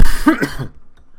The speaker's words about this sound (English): Sorry about the coughing. Usually handle these a lot better. That one must be a little rough one.